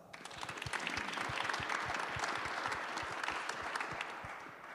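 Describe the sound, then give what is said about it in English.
A crowd applauds steadily for several seconds for a Bharatanatyam teacher being introduced, a dense wash of many hands clapping at fairly even loudness, with no voices standing out. “Round of applause.”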